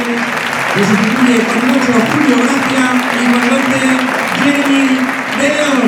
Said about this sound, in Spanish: Aplaude Castalia el bueno de Javi. ¿eh? Y Mollita también es el otro que se va.